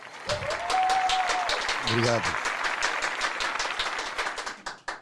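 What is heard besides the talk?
applause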